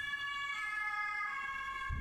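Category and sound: vehicle, ambulance siren passing by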